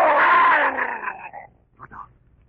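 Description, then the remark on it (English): A loud, rough dog growl rises and trails off over about a second and a half, followed by a brief, sharp second snarl, with no talking. “Speak to the dog.”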